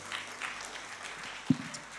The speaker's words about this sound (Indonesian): Kalau tidak ada berikan tepuk tangan bagi Tuhan Yesus.